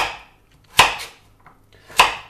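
A knife slices a carrot, cut lengthwise and laid on its flat side, into thin half rings on a cutting board: two crisp, woody chops about a second apart, fairly loud, with no talking.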